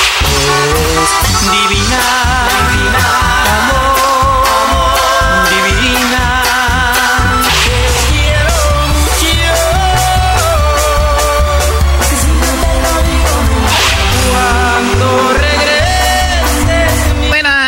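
A loud duranguense band mix plays nonstop, with a steady driving beat, heavy bass and bright brassy melodies layered on top, and no voices talking over it.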